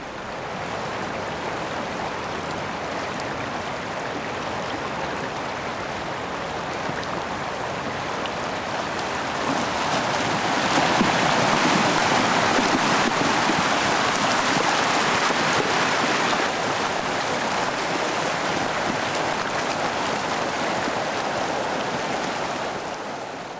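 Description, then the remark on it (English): Yosemite Creek in Yosemite, which can flow up to about 100 cubic feet per second, rushes steadily with slushy ice carried along, a dense continuous roar that swells louder about halfway through and holds there, with no voices. “It's the full force of Yosemite Creek, which can be up to, uh, say, 100 cubic feet per second.”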